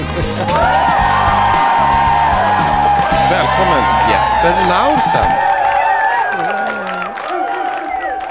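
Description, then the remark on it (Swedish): An added crowd cheering and applause effect laid on in the background: a loud crowd cheers, whoops and applauds continuously for several seconds, a dense wall of clapping and yelling with a voice speaking over the top near the start. “Nu hörde inte du de mäktiga applåderna som lades på där i bakgrunden, men det, du får tänka dig in i dem.”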